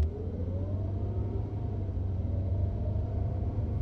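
A car engine rumbles steadily and its pitch climbs as the vehicle accelerates and drives off, a continuous moderately loud motor sound with no voices.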